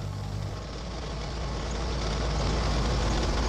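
A car speeds steadily along country roads in Finland, its low engine rumble and broad tyre-and-wind hiss continuous, swelling slightly louder toward the end, with no voices.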